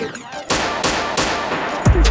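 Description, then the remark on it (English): Several sharp gunshot sound effects crack out at uneven intervals, loud, with a couple of shots fired in quick succession near the end over a dense, busy background. “Gunshot a echo in a the distance and guns and submachine.”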